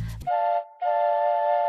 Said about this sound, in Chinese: 火车进站了，汽笛尖锐的叫着：“ 皮皮跳！” 火车轰隆隆又出发了